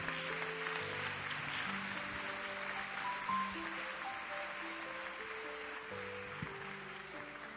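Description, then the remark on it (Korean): A church audience applauds steadily to welcome a missionary coming up to preach, a dense, continuous wash of clapping that lasts the whole stretch, with sustained low keyboard chords playing underneath and no one speaking. “선교사님 나오실 때 우리 축복의 박수로 귀한 말씀 청해 듣도록 하겠습니다.”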